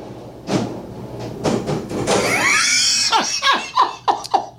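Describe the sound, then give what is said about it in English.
Chairs slide and scrape down to the floor in a loud, drawn-out screech, followed by several quick, squeaky bursts as they settle, with no talking. “Uh, I bet you that was those chairs, chairs that were.”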